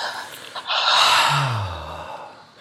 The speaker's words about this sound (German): und atmen wir alle tief ein ja, genau. und wieder aus.